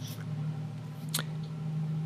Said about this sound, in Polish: E, już sobie tu muszę kliknąć, proszę bardzo.